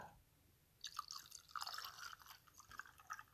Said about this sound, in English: My glass of Knob Creek Kentucky Straight Bourbon whiskey is getting a little less full, so it's time to add some more to it.